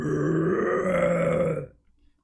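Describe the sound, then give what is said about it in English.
A single angry roar from an elite, loud, low and raspy, holding steady for about a second and a half before breaking off abruptly into near silence. “An elite lets out an angry roar in Noodle's direction.”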